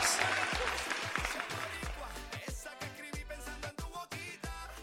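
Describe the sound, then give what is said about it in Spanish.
A crowd applauds loudly while a band kicks in with thumping bass and sharp drum hits; the clapping is densest at first, then blends under the steady beat of the music. “Este, este aplauso para ustedes.”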